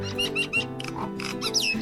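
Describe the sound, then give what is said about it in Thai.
A myna bird flying in calls in a string of short, bright whistles and chirps, repeated several times over about two seconds, fairly loud above a low, buzzy, grunting drone, in a forest. “ทันใดนั้นเขาได้ยินเสียงนกเอี้ยงบินมามันส่งเสียงร้อง”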